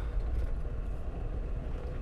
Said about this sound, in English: All right, now I'm back in my car, headed home. Had to pause there for a minute.